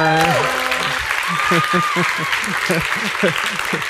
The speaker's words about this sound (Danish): Så øh, var det ikke fantastisk? Giv ham da en hånd, altså.